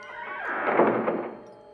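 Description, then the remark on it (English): A door, pulled by fingertips curled through its slot, swinging shut: a brief scraping swell that builds into a soft, muffled thunk, then trails off quietly. There is no talking. “I curl my fingertips through the slot and close the door.”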